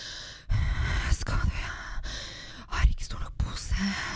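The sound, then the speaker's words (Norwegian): Someone imitates heavy breathing and panting, a run of breathy, whispery huffs and sighs over about four seconds with no words. “Jeg veit ikke, men det er ikke normalt å stå der og puste og pese og liksom”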